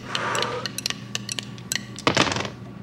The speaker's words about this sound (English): But here we go. I'm going to roll the dice.